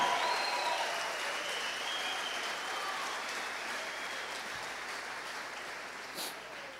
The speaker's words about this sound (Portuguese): Dá um grito de glória aí, um aplauso a Jesus, se é que você está adorando a Ele.